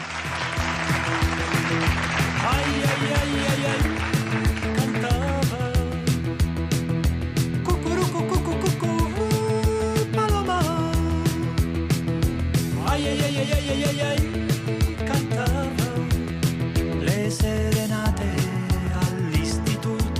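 A song by an Italian singer performed live, with a voice singing over a full band and crowd noise mixed in, holding a steady, loud level throughout.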